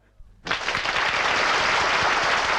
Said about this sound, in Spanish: ¡Fabuloso! ¡Un aplauso gigantesco para Tambo!